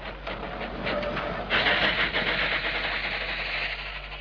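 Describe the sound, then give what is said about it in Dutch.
A car engine that has run out of fuel sputters and struggles with an uneven, rough mechanical chatter. It surges louder partway through, then keeps labouring steadily, with no voices. “De maag van de automachine is leeg, o vrouwmens.”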